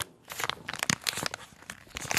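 Crinkling of a plastic wrapper: a dense run of sharp, crackly rustles that bursts and stutters unevenly for about two seconds, bright and hissy, with no voices.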